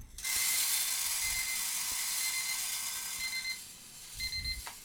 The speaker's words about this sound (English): So you can hear I have sent the green coffee down this little entry tube um, and into the roaster. So this is a drum roaster, similar to what you might see in a high-end coffee shop